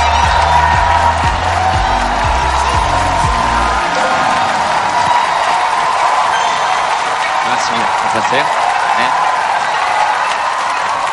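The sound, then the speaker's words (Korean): A crowd claps and cheers loudly and continuously, a dense wash of applause with whoops, while a host greets people over it and a low musical thump fades out early. “박수를 이렇게 막 치면서도 전부 다 이렇게.”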